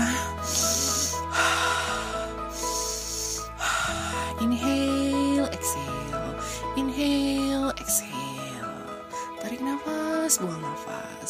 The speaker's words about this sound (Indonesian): tarik nafas buang nafas